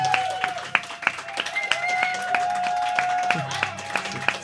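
An audience applauds with sharp, fairly regular claps throughout, accompanied by a sustained high, whistle-like tone over the clapping.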